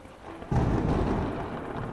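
A low rumble of thunder swells in suddenly after a quiet start, rolling on with steady rain hissing beneath it, loud throughout.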